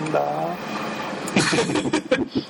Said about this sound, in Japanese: 今日はいつもより多めに電車走るね。